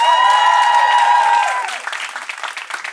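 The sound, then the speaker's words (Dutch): Loud audience applause welcoming singer Noemi Wolfs, the second contestant, a dense patter of many hands clapping, with a steady whistle-like tone ringing over it for the first second and a half before the clapping thins and fades. “En een warm applaus voor Noemi Wolfs.”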